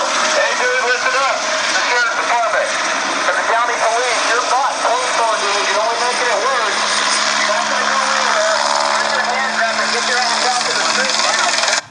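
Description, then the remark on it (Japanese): A helicopter chasing a suspect roars steadily directly above a house in LA at night, around 10 pm, shining a searchlight, while an amplified voice booms through a loudspeaker ordering hands up and not to move, distorted and echoing, continuous and loud throughout. “もう風潮ヘンズアップって言ってる、ね、そうそうなんですヘリコプターからもうこれ以上動くなみたいな撃つぞみたいなもうそんなそんな勢いで真上から 犯人をね追跡してるんですよ”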